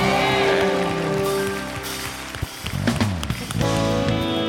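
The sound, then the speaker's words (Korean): A church audience claps in glory and thanks to God, steadily and densely for several seconds, a loud, rain-like wash of applause over sustained instrumental music, with no talking. “영광과 감사의 박수 올려드립시다.”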